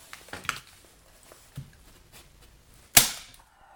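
A stapler snaps shut with one sharp, loud clack, stapling a paper tab on one side, preceded by softer rustling and a few light taps of paper being handled.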